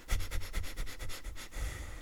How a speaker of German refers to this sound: mehrmals zu schnüffeln. Wir nehmen dann Gerüche intensiver wahr.